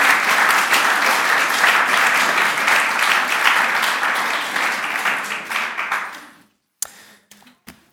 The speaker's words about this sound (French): Je propose qu'on l'applaudisse encore une fois pour tout son travail. Merci beaucoup.